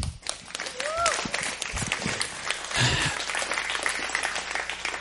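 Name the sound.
audience applauding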